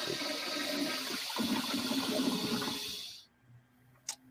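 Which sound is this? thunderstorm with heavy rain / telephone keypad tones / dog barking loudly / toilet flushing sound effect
toilet flushing sound effect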